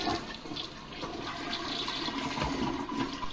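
A toilet flushes with a steady, loud rush of swirling water, continuous for a few seconds with no voices.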